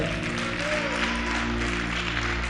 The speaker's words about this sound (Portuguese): Quantos é que podem dar uma salva de palmas àquele que é Senhor?